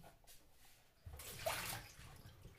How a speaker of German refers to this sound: Wasser noch ausleeren.